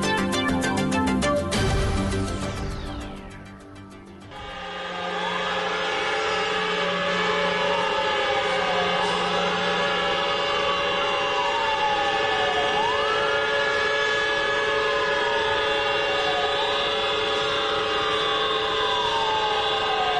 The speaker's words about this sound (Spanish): lo que estamos escuchando son las sirenas antiaéreas en China, que se detuvo en la mañana de este sábado para rendir un homenaje a las 3.326 personas que han fallecido por el COVID-19. Los residentes hicieron una pausa de tres minutos